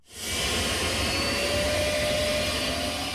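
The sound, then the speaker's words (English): A steady, loud turbine whine with a broad rushing roar from the gas turbine engine of a 1963 Chrysler Turbine Car, a bronze two-door, on the National Mall, rising in at the start and holding constant throughout with no talking. “That's not a jet plane, but a gas turbine powered 1963 Chrysler turbine car.”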